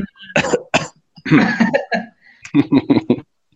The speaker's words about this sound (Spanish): No escuché, ¿tosiste?